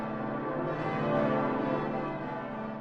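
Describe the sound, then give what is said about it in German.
Church bells of Eichstätt Cathedral ring loudly and continuously, heard from the cathedral's north tower as they ring in the Feast of Epiphany, their overlapping tones forming a dense, sustained wash of ringing with strong low hums and shimmering overtones, with no voices. “Ich stand in Eichstätt im Dom auf dem Nordturm und es wurde das Fest Heilig Drei König eingeläutet.”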